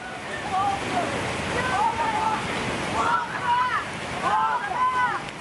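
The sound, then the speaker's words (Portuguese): Rushing muddy floodwater from an overflowing stream on Avenida Tereza Cristina, on the border between Belo Horizonte and Contagem, roars steadily and loudly throughout, a dense churning wash, with the voices and shouts of children about 10 to 13 years old rising intermittently over it. “crianças foram flagradas se arriscando perto de um ribeirão que transbordou.”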